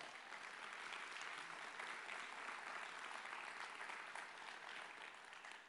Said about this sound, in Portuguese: Aplauda o Senhor!